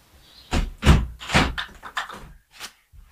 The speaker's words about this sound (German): Aber erstmal, wie gerade gesagt, mache ich jetzt das Fenster zu.